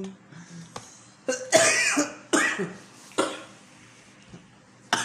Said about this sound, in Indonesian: Batuk tapi udah dua ya.